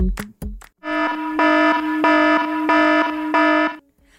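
A few sharp knocks open, then a loud, harsh electronic alarm rings in steady pulsing bursts, about four or five repeats, buzzing with no one speaking.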